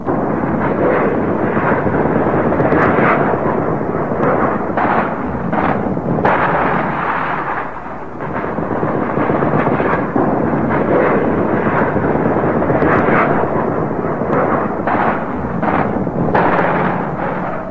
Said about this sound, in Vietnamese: Bom đang rớt trên đầu tôi